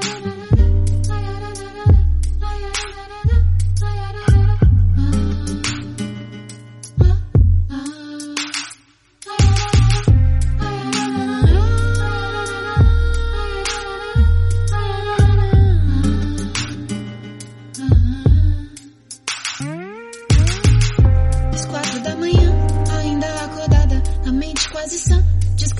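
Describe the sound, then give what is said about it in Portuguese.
An instrumental song intro plays loudly, with a deep, pulsing bass beat under sustained melodic tones and chords, briefly dropping out near the middle before resuming; no one sings or talks. “a gente vai começar assim, com a música de …, …”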